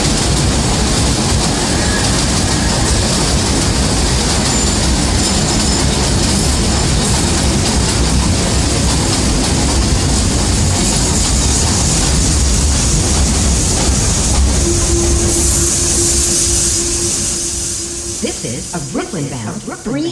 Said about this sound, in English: express train. Express train. The next and last the next stop and is last stop New Lots Avenue. New Lots Avenue.